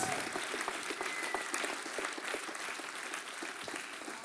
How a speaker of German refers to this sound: Und geben wir noch einen riesen Applaus, Ihr es so gut gemacht haben. So, so, so gut.